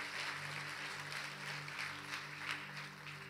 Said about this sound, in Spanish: No, no, no. Si va a aplaudir, aplauda bien, pues. No aplaude de cualquier forma.